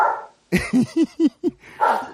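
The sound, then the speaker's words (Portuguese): Dogs bark loudly in a quick burst of about five sharp yelps, with a longer bark-like cry at the start and end and no talking. “E agora eu vou contar para vocês, se os cachorros Vai. deixarem.”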